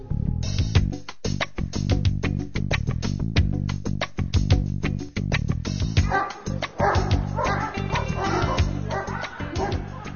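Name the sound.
dogs barking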